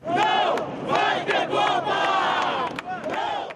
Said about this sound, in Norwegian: Det blir ikke noe VM, roper deltakerne i en demonstrasjon her i Rio denne uken. Men få dager før mesterskapet starter, kan vi slå fast at det nå berømte kampropet ikke er sant.